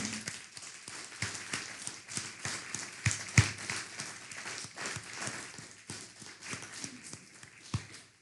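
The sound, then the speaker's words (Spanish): An audience claps steadily for about eight seconds, applauding the Eternal (God): a dense, crackling patter of many overlapping hands with a few sharper, louder claps standing out, and no voices over it. “Pues vamos a brindarle un fuerte aplauso al Eterno.”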